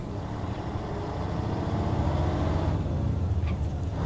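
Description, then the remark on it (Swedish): A truck drives south with a steady, heavy engine rumble and road noise that stays constant throughout, with a few faint high squeaks near the end. “Tom hoppar in i lastbilen och börjar köra söderut.”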